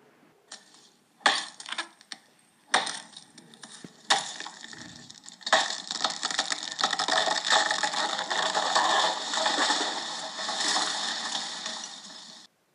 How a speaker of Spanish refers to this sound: Finalmente, después de un duro esfuerzo, el tronco crujió y se partió en dos. Habían conseguido derribar el árbol.